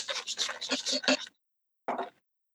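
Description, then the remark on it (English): A cocktail shaker is shaken hard and fast, a quick run of loud, rhythmic rattling bursts for about a second, then a pause and one final short shake. “did you miss that shake? Did you miss that sound”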